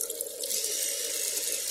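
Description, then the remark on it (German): Water runs steadily from a tap into a bathroom sink, a continuous splashing hiss with no pauses, alone without any voices. “Barbara blieb wenig Zeit. Duschen, Zähne putzen und Kleider wechseln.”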